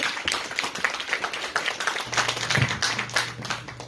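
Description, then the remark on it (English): A crowd claps steadily in dense, even applause for about four seconds for a lady who made a donation, with a low steady hum joining underneath partway through. “Round of applause for the”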